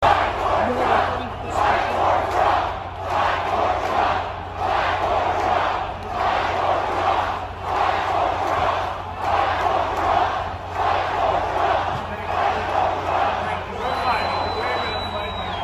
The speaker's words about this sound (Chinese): 所以，川普总统在佐治亚州的这次演讲是他选后的首次演讲，全场万众激情欢呼，都喊着川普总统要再干四年，我们爱你，我们要为川普而战。